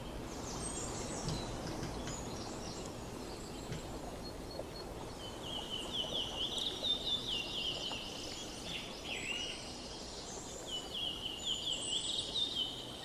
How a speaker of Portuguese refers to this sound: Berlioz e Bentivis cantam.